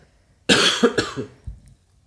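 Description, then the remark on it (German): A person with a chronic urge to cough coughs twice in quick succession, harsh, followed by a softer throaty rasp as the fit trails off. No one speaks. “Ich habe so einen chronischen Hustenreiz.”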